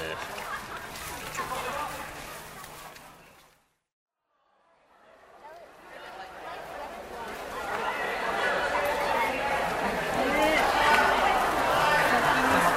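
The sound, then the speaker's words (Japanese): A large crowd of school-trip students chattering on the way to Tōdai-ji temple, a dense, continuous babble of many young voices that cuts out briefly to silence, then swells back up louder and busier than before. “さて、えー、今僕が東大寺に向かっておりますでっかいもんだなもう修学旅行生で溢れ返ってますね”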